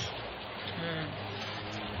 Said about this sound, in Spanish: Santo Dios, cuánto trueno. ¿Cómo llueve?